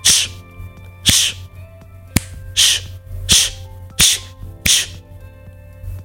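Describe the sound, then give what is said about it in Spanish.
Six short, sharp hissing bursts made through teeth and tongue, like a repeated "tsst," used to calm a dog that is barking or about to fight, evenly spaced with no talking, plus one brief click partway through. “cuando no paraban de ladrar o se estaban jalando de la correa, cuando se querían pelear con otros perros, era tocarles en el cuello, como si le hablaras a una persona, y había que hacer un ruido con los dientes y la lengua, algo así como”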